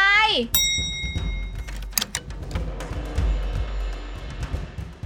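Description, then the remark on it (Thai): A house doorbell chime rings out sharply, followed by a rapid flurry of repeated presses and clicks as a visitor rings it over and over, with muffled voices and background noise underneath. “มีอะไรมากดกริ่งบ้านป้ารัวขนาดนี้ ไม่เกรงใจกันบ้างเลยนะ”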